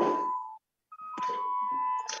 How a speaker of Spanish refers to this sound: perdón por el timbre